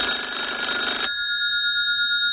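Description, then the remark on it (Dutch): A loud, rattling telephone bell rings in one burst lasting about a second, then stops abruptly, leaving a steady ringing tone that lingers quietly. “telefoon, telefoon, telefoon, telefoon, telefoon, telefoon”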